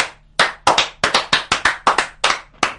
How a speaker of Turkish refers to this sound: Dakikalarca ayakta alkışlandı. Diye hesap edin Stüdyo dışında alkışların devam ettiğini